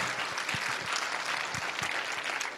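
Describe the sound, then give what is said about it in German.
An audience applauds Jesus steadily, a dense wash of many hands clapping at an even, sustained level with scattered sharper claps poking through, and no voices standing out. “Ja, gebt doch Jesus nochmal einen Applaus, einfach weil er gut ist, schon vorneweg.”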